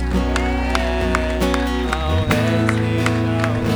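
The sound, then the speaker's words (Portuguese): An audience claps in a steady rhythm as a round of applause to God, the sharp claps landing regularly over loud, sustained musical tones and a low droning bass, with a busy crowd murmur underneath. “É uma grande salva de palmas a Ele.”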